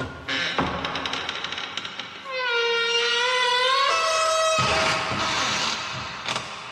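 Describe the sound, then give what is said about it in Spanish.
A few rattling clicks lead into a loud, drawn-out creak of a long-closed door in a house swinging open by itself, its squealing pitch wavering for about two seconds before giving way to a dull, noisy rumble. “Una puerta que había permanecido cerrada se abrió sola, sin que nadie pudiera explicar cómo había sucedido.”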